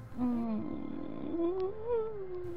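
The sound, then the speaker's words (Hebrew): A faint, drawn-out moan, low and wavering, that steps up slightly in pitch halfway through and holds for a few seconds with no speech around it. “חיכיתי שהיא תתנצל או שתקרא לי טמבל, אבל במקום זאת, שמעתי גניחה קלושה.”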